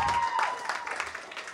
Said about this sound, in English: Uh, give a big round of applause for my new wife